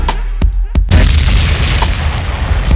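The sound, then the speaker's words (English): A DJ bomb drop sound effect: a few sharp cracks lead into a loud, deep boom that rumbles on heavily, dominant, with no other sound competing. “Drop the bomb feel that one”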